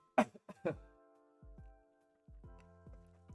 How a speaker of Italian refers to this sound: Eh, C'è un po' ancora di tosse, ragazzi.